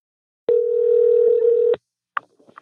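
A single steady telephone ringing tone of an outgoing phone call sounds for just over a second, clear and fairly loud, then cuts off, followed by a couple of faint clicks as the line picks up.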